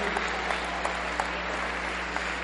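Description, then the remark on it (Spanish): Steady applause from a theater audience for a teacher called up on stage, a dense wash of many hands clapping with faint individual claps popping out, continuing evenly without talk over it. “Apláudale a a la, a la maestra, pero fuerte, córrale, maestra, venga, venga conmigo.”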